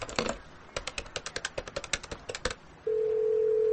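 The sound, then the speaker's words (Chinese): A telephone being dialed: a quick, uneven run of about a dozen short button presses, followed by a steady, low, continuous line tone that starts abruptly and holds. No one speaks. “你先坐，我给冯潇打个电话。”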